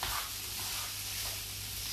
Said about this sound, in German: Und das jetzt alles einmal zusammen umschwenken. Und kurz anbraten für drei Minuten von allen Seiten.